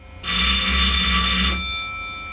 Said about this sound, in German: Damit Lokführer durch die Führerstände kommunizieren können, hat der VT2E eine Klingel.